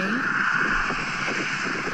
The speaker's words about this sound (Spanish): Ok, justo cuando pasa el ruido del coche sale es, cuando sale...